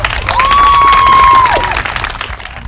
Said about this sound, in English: So give yourselves a round of applause, please.